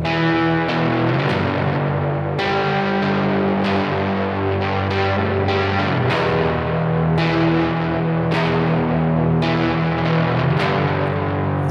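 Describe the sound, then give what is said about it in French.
A thick, heavily distorted electric guitar played through an ME80 rings out in sustained chords, washed in dense reverb, with new strums striking every second or so. Loud, with no voices. “Mais donc j'ai cette, distorsion là qui, avec beaucoup de reverb, donne un son assez épais et complexe.”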